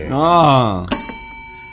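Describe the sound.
A voice sounds briefly, then a single bright doorbell chime strikes and rings on, fading slowly.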